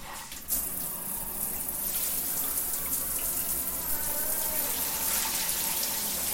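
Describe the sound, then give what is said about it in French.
A small bathroom shower runs steadily after a brief start, a continuous hiss of spraying water that stays even and fairly loud throughout, with no voices. “Voilà, nous allons avoir l'eau de la douche.”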